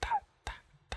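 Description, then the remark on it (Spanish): A voice imitates water dripping from a leak with three short, sharp syllables spaced evenly about half a second apart, fairly loud, with nothing else around them. “Más tarde, marica, vuelve y escucha la gotera.”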